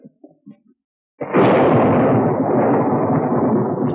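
A sudden loud thunderclap from an approaching storm at night bursts in after a few faint, quiet sounds, then rolls on as a heavy, sustained rumble that stays strong until the end.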